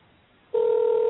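After a moment of quiet, a loud, steady electronic telephone ring tone switches on and holds unbroken to the end, with no one talking.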